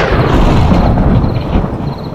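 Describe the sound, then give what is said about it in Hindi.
A heavy, sustained rumble of thunder rolls through late at night during a sudden storm, deep and loud, with dense low-end energy that stays steady for a couple of seconds before easing slightly. No voices are heard. “देर रात बिजली कड़कने से”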